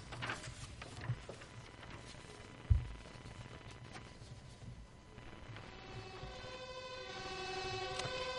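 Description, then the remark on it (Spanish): A fire engine siren swells in over a rough, rumbling background, its steady tone growing louder through the final few seconds after a couple of dull thumps early on. “No me asustan las sirenas de bomberos eh, cuando éramos novios y menos ahora me va a asustar esto.”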